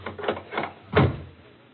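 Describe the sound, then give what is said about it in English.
A door is pushed shut and bolted: a couple of light rattling knocks, then a heavier clunk as it closes and locks, with no talking. “First thing to do is bolt the door.”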